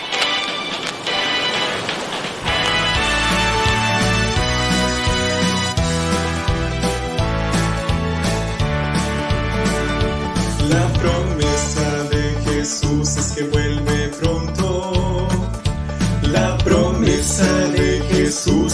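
A recorded religious hymn plays at a steady, moderate volume, with sustained layered harmonies over a regular pulsing bass beat that kicks in after a soft opening couple of seconds.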